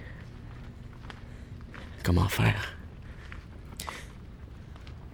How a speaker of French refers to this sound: Je pose un pied, le plancher craque. Je peux pas faire de bruit.